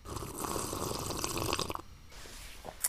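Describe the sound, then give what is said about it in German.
Someone sips a vegetable juice drink: a steady wet, slurping gurgle for nearly two seconds, then it goes quiet apart from a faint swallow and a short click at the end. “Gut, dann Prost richtig Angst, das zu trinken.”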